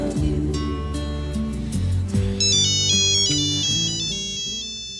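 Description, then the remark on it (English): A phone rings with a melodic electronic ringtone, bright chiming notes stepping up and down in a repeating pattern over low sustained tones, loud and steady for several seconds with no talking. “But then, of course, the, the phone rings.”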